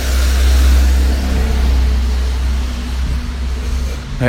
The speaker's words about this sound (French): Je laisse passer le bus